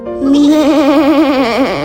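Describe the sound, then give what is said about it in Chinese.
A lamb bleats once in a long, quavering cry of almost two seconds, its mid-high pitch trembling rapidly throughout. The bleat is loud and steady, with no voices or other sounds. “野狼霍夫曾抓走小羊，因为他想吃烤羊腿。”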